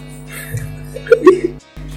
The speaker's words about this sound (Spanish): creo que esta vez ni siquiera voy a cortarlo, como ya había avisado del hipo de …